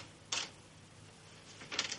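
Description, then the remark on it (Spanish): Typewriter keys clack in a sparse pattern, a single strike followed by a quick cluster of several more, fairly quiet against a low steady hum with no voices. “Fran teclea en una máquina de escribir.”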